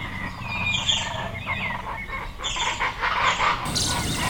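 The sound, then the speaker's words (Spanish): A flock of parrots and parakeets in the city of Tuxtla squawks and screeches in overlapping harsh bursts, calling continuously over a low, steady background rumble. “Los loros y cotorras escuchan tu voz, tu transitar por la ciudad.”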